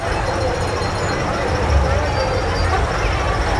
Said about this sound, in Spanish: Ahorita van a escuchar muchísimo ruido, porque está en la sensibilidad alta. Escuchen nada más. Bueno, esto es la Ciudad de México.